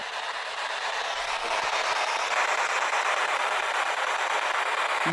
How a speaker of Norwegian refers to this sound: Det er et tog.